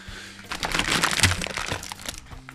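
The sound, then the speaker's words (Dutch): Crinkling of a new, fresh cracker package as it is opened and a cracker is taken out: a continuous run of crisp, papery rustles and small crackles lasting a couple of seconds, moderately loud, peaking midway and easing off toward the end, with no talking. “Ik pak heel even de crackers erbij.”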